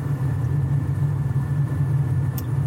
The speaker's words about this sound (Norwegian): Vi kan også si at vi er på vei til Oslo nå fra Hvaler, så det er en lang biltur.